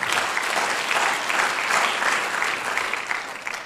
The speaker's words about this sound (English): Oh, you clap.